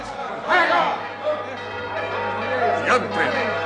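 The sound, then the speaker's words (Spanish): The bell of the Torre Nueva tower in Zaragoza rings out as an alarm in a few loud, resonant strikes with lingering tones, while a crowd murmurs and chatters beneath it. “¡La campana de la Torre Nueva! No esa campana deja oír su lugo bretañido! la ciudad está en peligro y necesita de todos nosotros.”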